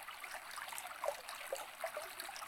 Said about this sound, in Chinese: 你觉得你可以听多久呢？你觉得你可以把注意力放在这个流水的声音上多久？